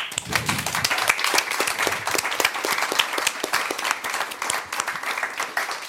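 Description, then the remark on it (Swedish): An audience applauds ABF Huddinge, funders of the project, steadily for about six seconds, a dense patter of many hands clapping at a fairly even, lively level with no one speaking. “Så jag tycker vi ger en stor applåd till dem också.”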